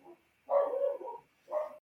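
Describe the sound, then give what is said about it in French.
Dogs shut outside the room bark in a few muffled bursts, a long drawn-out bark followed by a shorter one, sounding dull as if heard through a wall or door. “Il y a mon qui en train d'aboyer. On les entend, mais c'est bien, ils interviennent.”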